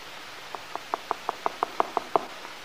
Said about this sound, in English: there's a tap at the door.